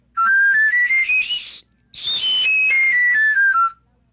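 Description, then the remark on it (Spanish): A breathy pan flute, a row of small joined tubes of different pitch, plays a quick rising run of about eight notes, pauses briefly, then runs back down the scale, clear with no voices. “Son varios silbatitos de distinto tono que suenan así.”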